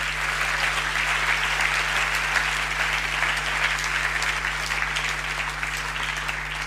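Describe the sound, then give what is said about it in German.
A church crowd applauds for at least 20 people who have become free from drugs, dense overlapping clapping that stays loud and even from start to finish, with a constant low hum underneath and no voices standing out. “Lass uns jetzt mal einen Applaus geben einfach.”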